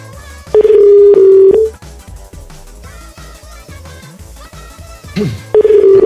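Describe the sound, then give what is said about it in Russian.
A loud, steady telephone tone sounds for just over a second, falls silent, then returns near the end, over a faint murmur of background music. No one speaks. “Поэтому надо, конечно, сразу звонить.”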